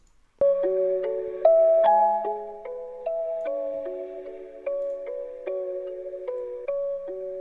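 An instrumental music track published on SoundCloud plays alone: a clear, bell-like synth melody steps through sustained notes over a soft lower line, moderately loud and steady, with no voices.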